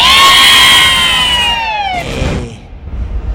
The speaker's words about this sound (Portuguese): Ih, olha, os do contra, os do contra. Todo canto tem oposição, né? Aí, ó. Uns Enquanto uns aplaudem, tem uns vaiando. Aí, ah, pra lá, bando invejoso.